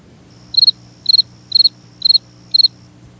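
A cricket chirping sound effect: five chirps at an even, steady pace, each chirp a quick trill of about three pulses, clear over a faint low background hum.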